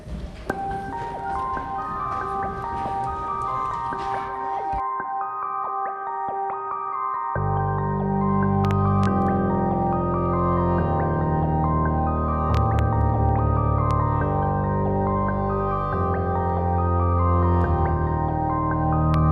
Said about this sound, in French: Et maintenant, une petite pause musicale.